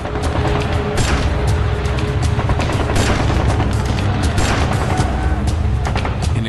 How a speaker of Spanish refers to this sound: Los soldados también son víctimas de los disparos provenientes del edificio Chihuahua y otros puntos altos de la plaza. Y devuelven el fuego.